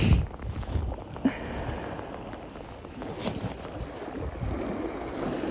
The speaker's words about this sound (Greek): Είναι υπέροχο, έχω να σας πω ότι αυτή τη στιγμή ξεκίνησε να βρέχει.